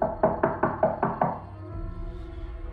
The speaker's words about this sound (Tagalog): Nang may kumatok na naman sa pinto. Sa umpisa ay mahina lang ang katok at mabagal. Pero palakas ito ng palakas na parang gusto talagang buksan ang pinto.